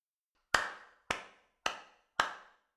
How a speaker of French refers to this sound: Le père de famille se mit à applaudir avec sarcasme le discours de son fils.